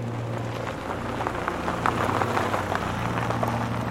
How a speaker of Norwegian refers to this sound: Hun går frem og tilbake på kjøkkengulvet, titter på ungene, og så hører hun billyder på grusen utenfor døren.